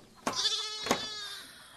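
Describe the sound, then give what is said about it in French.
Goats bleat twice in quick succession, each cry a wavering, nasal call that trails off, heard alone with no voices. “Ouf, ce n'est pas une vie de garder des chèvres tout le temps.”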